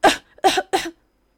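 A chameleon, choked by water after falling in, coughs three harsh, raspy coughs in quick succession, each a short loud burst with brief gaps between, heard on their own with no talking.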